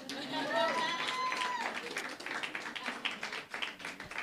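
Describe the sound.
Audience applause: a dense, steady patter of many hands clapping for a few seconds, with some crowd voices and a rising whoop near the start.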